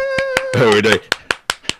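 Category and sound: crowd, hand clapping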